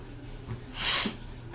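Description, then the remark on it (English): A single short, forceful nose blow, a breathy hissing burst lasting about a third of a second, against a quiet background with no talking. “blow my nose.”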